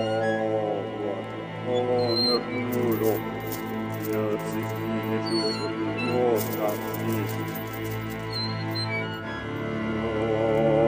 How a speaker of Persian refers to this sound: از خونه که میرسم بیرون صدای تاب میاد